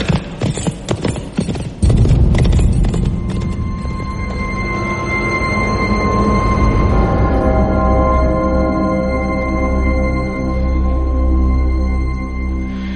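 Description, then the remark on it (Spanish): A horse's hooves clip-clop in a quick, rhythmic patter, sharp at first, then settling under a steady, droning tonal backdrop with no voices. “Y ya sabéis, tu hija o tú, tu caballo sabrá cómo volver.”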